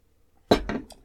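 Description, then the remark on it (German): A sharp clink of glass beer bottles knocked together in a toast, followed by a couple of quick ringing taps, fairly loud, with near silence before it. “Aber Jungs, erstmal Prost und ja, Schnapszahl. 33.”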